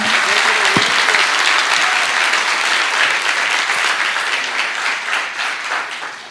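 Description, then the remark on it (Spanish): A crowd claps steadily in a dense, continuous wash of applause for the Lord that stays loud for several seconds, then begins to thin and taper off near the end. “No, pero si le van a dar un aplauso al Señor.”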